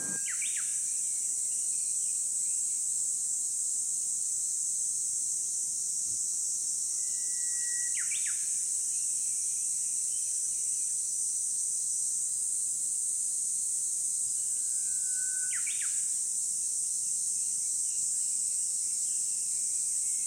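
Small birds give three brief, sharp chirps spaced several seconds apart, each a quick upward trill, over a steady high-pitched insect drone with no voices.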